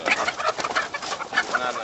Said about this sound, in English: Walking down a narrow aisle about 100 yards long, we're surrounded by 9,000 hens stacked in six rows of cages. Little conveyor belts bring their feed and take away their eggs.